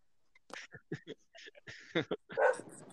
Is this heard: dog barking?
yes